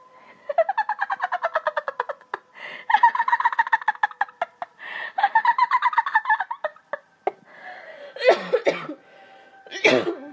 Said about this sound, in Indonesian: Ada batuk cuy.